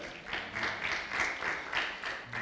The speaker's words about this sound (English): Hey, maybe you should keep going. You got applause, man. I think the next one will be a standing ovation.